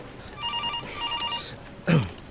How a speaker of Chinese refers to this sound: 哎哎哎，申叔叔有电话， 那你就接啊。